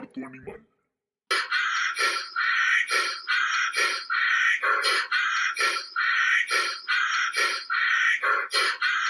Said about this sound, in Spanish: El rinoceronte blanco es considerado el segundo mamífero terrestre más grande por detrás del elefante africano. Yo sé que ustedes pensaron que el sonido podría ser otra vez del burro, pero no. Es similita hay similitudes, pero era el rinoceronte.